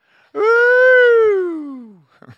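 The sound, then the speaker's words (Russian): A single loud, drawn-out wailing cry from a human voice, holding steady before sliding downward in pitch as it fades, followed by a brief breathy sound. “И вопишь иногда.”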